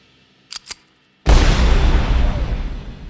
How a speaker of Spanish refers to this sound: La escena final muestra a uno de los forajidos mirando fijamente a la cámara haciendo un disparo directamente al espectador, acompañado de un platillo, marcando el final de la película.